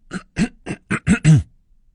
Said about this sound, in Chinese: 小刺猬咳嗽了起来